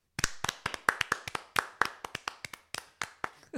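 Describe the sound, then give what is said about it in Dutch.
A short burst of hand clapping, about sixteen sharp claps in a quick, fairly steady rhythm, like one or two people applauding. No voices. “Ik wil graag beginnen met een applaus voor ons.”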